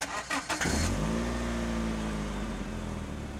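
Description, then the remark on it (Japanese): A car engine cranks over in a few quick bursts, catches, and settles into a loud, steady idle hum, with no one speaking, as Katakura gets into the car and starts the engine. “片倉は車に乗り込んでエンジンをかけた”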